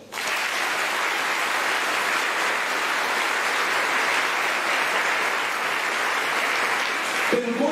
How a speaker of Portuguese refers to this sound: Pode aplaudir.